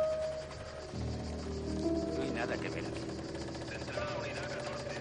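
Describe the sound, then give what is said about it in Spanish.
A motorcycle engine idles with a steady, low, throbbing rumble that kicks in after about a second and holds at a constant level, with indistinct voices in the background, as a young woman arrives on her motorcycle and a police officer asks her to stop. “llega en su moto y un policía le pide que se detenga.”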